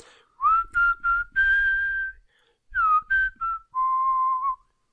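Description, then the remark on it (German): A person whistles a short melody, clear pure tones in two phrases of several notes each, sliding between pitches, with a brief pause in the middle and a long held final note. “Ich pfeife diesmal, vielleicht klappt es dann ja, besser.”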